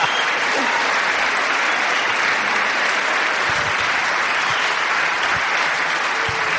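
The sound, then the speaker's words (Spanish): Loud, sustained applause from a crowd, a dense steady wash of clapping that holds at an even level for several seconds without pause. “Fuerte aplauso.”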